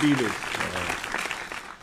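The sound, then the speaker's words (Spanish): A short burst of steady audience applause, dense overlapping claps forming a crackling wash, with a brief voice at the start. “Este aplauso para ti, gracias.”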